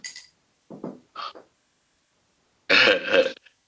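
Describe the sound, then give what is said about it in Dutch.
A few short throat-clearing grunts, then a loud, wet, gravelly hack full of phlegm, with no talking. “ik, ik hoor dat je bak is vol slijm is. Dat je dat niet durft in te slikken.”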